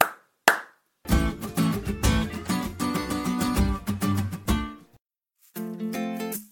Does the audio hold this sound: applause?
yes